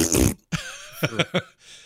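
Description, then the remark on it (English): A wet, buzzy mouth-made fart noise from Murky, the Murloc character in the game Heroes of the Storm, blurts out loudly, followed by a few short sputtering pops and a fading hiss, all without any talking. “Well, uh, now I know where I'm going to get my next little fart sound.”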